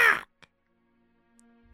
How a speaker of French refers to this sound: Parce que le corbeau se met à chanter. Mm-hmm. Puis il va juste te regarder, puis quoi, quoi, quoi.